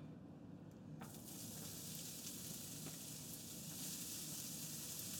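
Chopped fennel bottoms hit a hot pan at about one second to be caramelized, bursting into a loud, steady sizzle with crackles and pops that continues without letup. No voices are heard.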